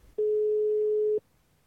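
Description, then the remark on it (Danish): A single ringback tone from an outgoing phone call to a band's frontman: one steady, loud, pure mid-pitched beep lasting about a second, clear and alone, then quiet. “Ja, hvem kan bedre besvare det spørgsmål end …, og ham har vi faktisk øh, aftalt at ringe til nu.”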